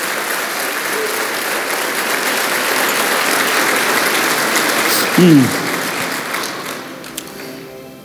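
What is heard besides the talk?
loud audience applause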